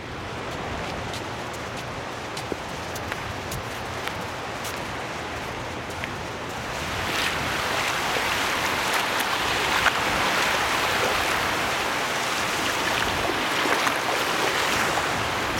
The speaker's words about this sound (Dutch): Nu begint de zee.